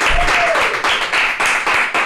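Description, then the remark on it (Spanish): A steady burst of applause from many hands, a dense, loud crackle of clapping that holds for about two seconds with no voices over it. “hágase un aplauso, puñeta.”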